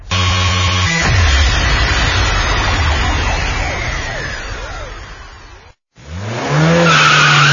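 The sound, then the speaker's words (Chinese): Car tires squeal loudly through a drift over a roaring engine, a long sustained screech that cuts off briefly near the end before another burst of squealing and revving. “在这里温馨提示那些爱飙车的兄弟们注意了，汽车马力大不是你的错，但是在大马路上玩漂移就是你的不对了。”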